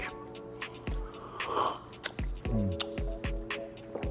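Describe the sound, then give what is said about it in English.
A brief slurping sip of hot coffee being tasted, a short airy intake followed by a few soft mouth clicks and swallows, with faint steady background music underneath. “The first sip is quite strange.”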